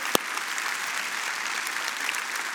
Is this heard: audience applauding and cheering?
yes